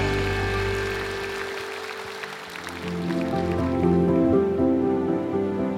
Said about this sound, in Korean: 영광의 박수를 드리며 나아갑시다.